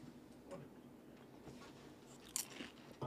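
Crisp crunching of a snack being bitten and chewed, with several sharp crackly bites scattered over a few seconds and no talking.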